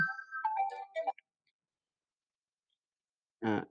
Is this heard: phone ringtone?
yes